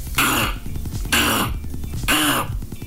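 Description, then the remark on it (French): A voice on the Rouge radio station imitates Donald Duck, making three hoarse, squawking bursts at a steady pace, with no ordinary speech. “Voilà comment essayer de, de, faire Donald Duck.”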